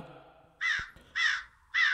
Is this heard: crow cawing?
yes